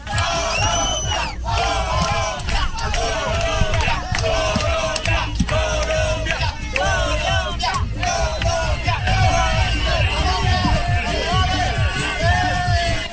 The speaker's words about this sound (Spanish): acaba de publicar un video en Instagram Falcao García en un vuelo comercial hacia Belo Horizonte la fiesta de los hinchas colombianos y de todo el estadio cantando al Tigre Falcao. Escuchen.